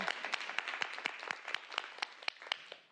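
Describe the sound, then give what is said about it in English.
An audience clapping: a dense, steady wash of many hands with crisp individual claps popping through, holding an even level for about three seconds with no voices over it. “yeah, let's clap for that.”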